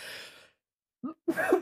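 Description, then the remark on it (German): A single sneeze: a brief breathy intake, a short pause, then a sharp, explosive burst with a noisy rush of air trailing off. “Gesundheit.”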